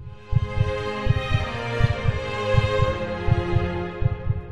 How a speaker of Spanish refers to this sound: Latidos. Escuchas tus latidos.